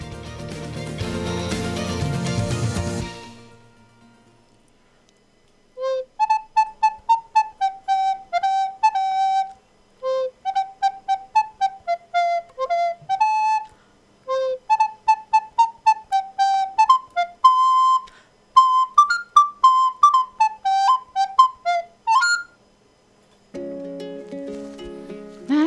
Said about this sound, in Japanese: ということで素敵なリコーダーの音色から始まりました本日の開示前日記